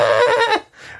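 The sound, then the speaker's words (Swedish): A voice imitates the bleat of a goat being sent off by balloon in a video game: a loud, wavering, nasal cry that drops in pitch at the end, followed by a fainter, shorter bleat trailing off. “Eller om du gör det med en get så är det liksom”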